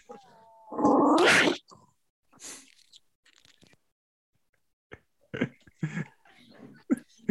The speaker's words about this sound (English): All I heard was the dog growling in the microphone, and I'm like, "Did the dog just eat the headphones?"